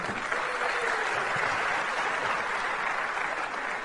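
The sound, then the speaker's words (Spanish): Steady applause from an audience fills the whole stretch, a dense continuous patter of many hands clapping at even loudness, with no voices breaking through. “es mi diamante, un fuerte aplauso para mi diamante.”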